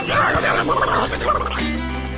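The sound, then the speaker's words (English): A 'talking horse' on the Horse Talk Show vocalizes in a drawn-out, almost voice-like nicker, loud and steady for about two seconds with a low rumbling tail, and no other sounds around it. “You never heard of a talking horse? Well, listen to this.”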